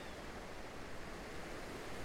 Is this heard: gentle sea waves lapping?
yes